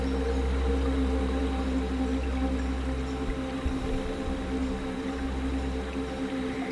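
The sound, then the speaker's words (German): Calm meditation music plays on its own, a steady wash of sustained low drones and soft held tones that hardly change over the few seconds, with no voices. “Lausche ein wenig der Musik, die du hörst.”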